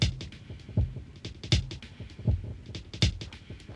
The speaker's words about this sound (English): So I've got two different delays going. I've got the chronoblob and the dirty murals. So let's just listen to the dirty murals really quick.